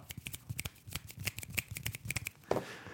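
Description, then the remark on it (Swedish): A quiet golf clap, made by laying two fingers on the other palm: fingers tapping lightly in a quick, slightly uneven patter of soft, crisp pats, alone for a few seconds. “Det är liksom man lägger två fingrar på den ena. Man ska ju vara tyst på golfbanan.”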